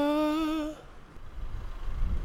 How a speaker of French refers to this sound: ah, une voiture qui s'arrête, il y a un monsieur qui descend. C'est juste qu'il n'arrivait pas à attraper le ticket avec son petit bras. Donc, il est descendu.